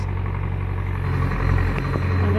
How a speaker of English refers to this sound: know if you can hear that sound, that spraying sound. That's it. It sounds like a vacuum cleaner almost.